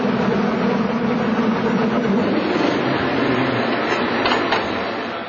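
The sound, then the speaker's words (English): A cable car on the California line rumbles steadily along the street toward Grant Street in Chinatown, a loud, continuous mechanical clatter and whir with no voices, easing off slightly at the very end. “These cars right here are part of the National Park System.”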